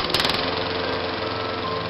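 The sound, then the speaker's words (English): A lawn mower engine runs loudly and steadily, a rough, buzzing drone with a rattling, sputtering edge that holds without pause throughout. “You can help a lawnmower go from this to this.”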